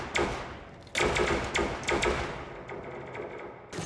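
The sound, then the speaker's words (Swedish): A burst of sci-fi stormtrooper blaster fire: several sharp, loud high-energy laser bolts ring out in an irregular volley over a dense, noisy battle backdrop, with no voices. “Ja, eh, High Energy Eh, laser bolts eller någonting. Eller stormtrooper-pickor som vi kallar dem.”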